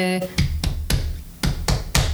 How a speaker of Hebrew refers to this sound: באמת למחוא כפיים לביט.